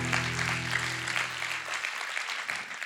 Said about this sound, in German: Vielen Dank, liebe Band. Vielen Dank für euren Dienst. Habt ihr einen Applaus für unsere Band? Dankeschön.